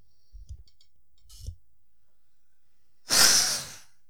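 Faint clicks and a couple of soft breaths, then one loud, forceful nose blow into a hand, a harsh rushing burst lasting under a second before quiet returns.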